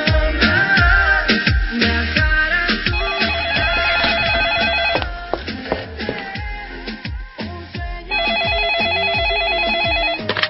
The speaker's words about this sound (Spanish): ¿Quién llama a un teléfono de línea?